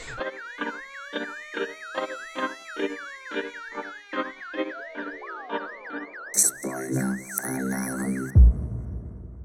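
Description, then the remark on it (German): A spoiler alert sound effect: a rapidly warbling, siren-like alarm tone pulses over a rhythmic beat, then a louder, noisy burst of electronic sound closes it off before stopping abruptly. “also ich würde jetzt einfach mal wieder so einen kleinen Spoiler-Alarm einbauen, weil ja.”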